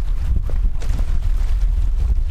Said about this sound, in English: It's a windy day along the Lake Erie shoreline in western Ohio.